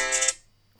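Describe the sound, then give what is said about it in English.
A phone alarm sounds a bright, electronic tone that rings briefly and fades, then starts again at the very end. It is clear, with no talking over it. “That's my alarm.”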